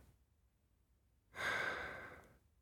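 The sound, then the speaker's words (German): A single deep, audible breath of clear country air in the Czech Giant Mountains, a long airy inhale starting after a quiet pause and slowly fading, with no talking. “Diese klare Landluft im tschechischen Riesengebirge zu atmen, ist eine Beschäftigung, die mich im wahrsten Sinne des Wortes voll und ganz ausfüllt.”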